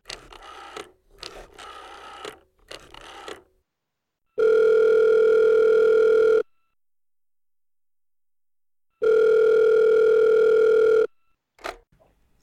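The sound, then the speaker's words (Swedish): A telephone ringback tone sounds twice as someone phones a woman, each steady electronic tone lasting about two seconds with a long silent gap between, after a few brief clicks and taps at the start. “Så jag tycker vi ringer upp henne.”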